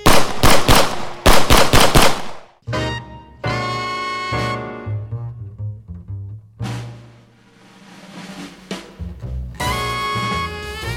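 Two rapid volleys of machine gun fire crack out loudly in the first couple of seconds, sharp repeated shots, before giving way to dramatic music with no talking.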